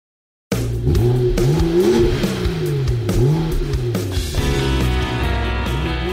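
A race car engine revs loudly and up close, its pitch repeatedly climbing and dropping in quick surges, then settling into a steady high whine near the end. No one speaks.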